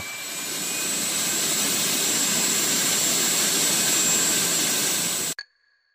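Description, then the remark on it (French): An airplane jet engine roars, a dense, steady rush of noise laced with high turbine whines as burning kerosene drives gas through the turbines, holding loud and constant for about five seconds before cutting off abruptly. “Sa combustion propulse le gaz dans les turbines, qui accélère avec un bruit assourdissant pour produire l'énergie nécessaire au mouvement de l'avion.”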